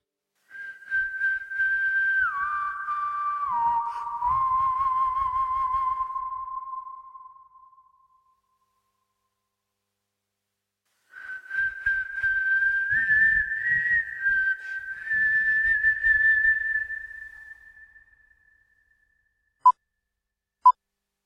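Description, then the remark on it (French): A clear whistled melody from the soundtrack of Sergio Leone's film A Fistful of Dollars (Pour une poignée de dollars), with a whistle replacing a tenor voice, in two long phrases of sustained, sliding notes over soft low accompaniment, separated by a pause and followed by two short high pings. “Il va juste lui demander de remplacer la voix du ténor par un sifflement et c'est tout.”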